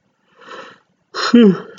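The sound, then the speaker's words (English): A single yawn: a soft, breathy intake of air, a brief pause, then a louder drawn-out voiced exhale that slides down in pitch. “lot of yawning coming for me.”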